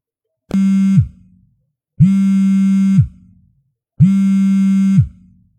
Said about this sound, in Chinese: 周期性的震动从枕头下面传来，同时还有音乐由弱渐强。